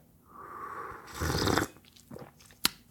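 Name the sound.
slurping hot coffee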